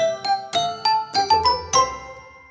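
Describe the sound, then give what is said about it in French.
A short jingle of about eight bright, bell-like chimes struck in quick succession, each ringing briefly before the next, the melody climbing slightly before a final note fades out. No voices. “tiens, c'est le moment de se caler un petit jingle”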